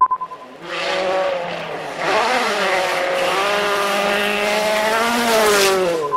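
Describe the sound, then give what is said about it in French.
A Ford Fiesta WRC rally car driven by Lorenzo Bertelli of Prada roars loudly and continuously, revving hard with rising and falling pitch as it shifts through gears, with no voices over it. “C'est lui qu'on entend volant d'une Ford Fiesta WRC.”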